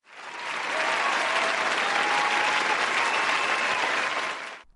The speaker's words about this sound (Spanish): desde aquí le mandamos un aplauso a Marcos